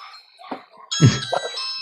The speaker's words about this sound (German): Die Hunde sagen dir das, gell? Die Hunde und die Alexa.